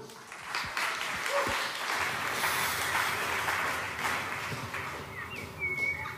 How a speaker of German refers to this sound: Seid ihr ready? Applaus fürs Theater. Come on.